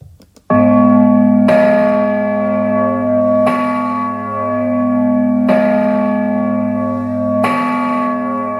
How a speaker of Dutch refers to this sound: En dat is de zogeheten Bourdon-klok. De Bourdon. Ja. De Bourdon.